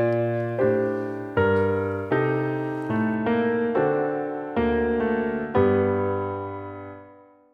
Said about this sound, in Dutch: Bach schrijft een stuk in G mineur, oftewel G kleine terts toonladder. En hij sluit af met een G majeur drieklank,